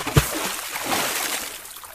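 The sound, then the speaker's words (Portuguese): A single sharp splash as a rat jumps into water, followed by a couple of seconds of soft sloshing and rippling that gradually settles as it swims away. No voices. “O rato afastou-se, pulou na água e desapareceu nadando.”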